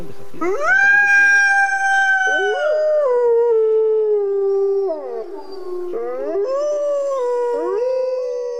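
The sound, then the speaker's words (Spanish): Iberian wolves howling in a loud, continuous chorus, several long overlapping voices sliding down in pitch, then rising again in fresh wavering howls toward the end. “Vamos a hablar del lobo ibérico.”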